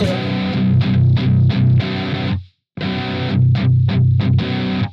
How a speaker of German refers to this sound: Ja, man hört es auch. Ja, genau, das ist der Booster. Das ist aber auch so eine typische Sache, die man eigentlich mit dem Tube Screamer oder was ähnlichem macht.